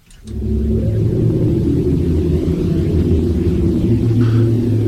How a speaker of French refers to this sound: ça, c'est le son de la Terre vue du ciel capté par un satellite de la NASA. Il a transformé des ondes électromagnétiques qu'il a captées dans l'espace en ondes sonores qu'on peut entendre dans nos oreilles.